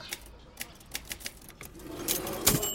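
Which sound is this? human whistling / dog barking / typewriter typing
typewriter typing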